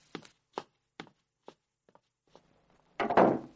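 About six steady footsteps of a man leaving, each a bit softer than the last, fade away, followed by a loud, heavy thud of the door being shut as he goes out.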